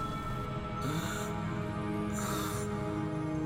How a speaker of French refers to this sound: Je connais ce bruit. Me semble que... Plus de doute. C'est le grognement typique d'un béhir. Un béhir Un monstre reptilien, ayant de grosses ressemblances avec un serpent. Avec douze pattes griffues, un dos acéré de griffes